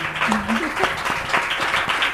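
An audience applauds, a dense, steady wash of many hands clapping at once, fairly loud throughout with no pauses, with faint voices murmuring underneath.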